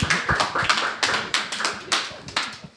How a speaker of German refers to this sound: Applaus